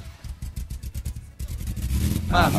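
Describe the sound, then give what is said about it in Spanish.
A car engine cranks with a quick, rhythmic starter chugging for about a second, then catches and fires up into a steady, rising idle roar, fairly loud. “¿Arranca o no arranca, Margolis?”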